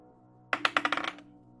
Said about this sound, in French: Oh yeah! On roule des dés!